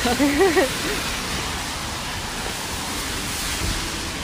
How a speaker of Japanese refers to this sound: 今ここはビクタースタジオの前ですね結構雨強くなってきてね寒いですね